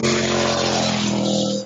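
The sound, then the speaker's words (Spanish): A motorcycle engine roars with a steady, loud buzzing drone, fading slightly at the very end as it moves past. “Acaba de pasar una moto.”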